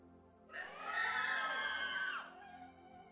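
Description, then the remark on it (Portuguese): A crowd lets out a loud, wild collective scream lasting under two seconds, a dense burst of high-pitched shrieking voices that rises sharply and then cuts off, leaving a faint murmur. “Isso é um grito louco.”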